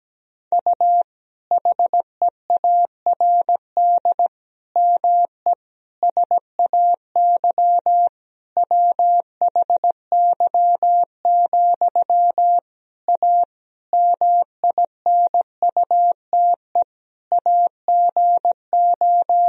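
A single clear, steady-pitched tone keyed on and off in a continuous stream of Morse code dots and dashes, sending sentences built from the top 500 words and abbreviations at 17 words per minute, with brief gaps between words and no voices.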